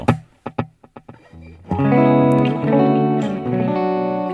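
Electric guitar played through a delay pedal and a reverb pedal chained in series, with the reverb mix set fairly high: a few sharp staccato plucks with echoing repeats, then sustained chords that swell into a thick, washy, reverberant tone. No one speaks.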